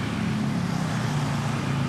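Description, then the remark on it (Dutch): Steady, dense drone of small motor engines from busy motor scooter traffic in Bali at night, a continuous buzzing hum with no pauses, moderately loud, and no voices. “Je doet hier alles op de bike, op je brommertje.”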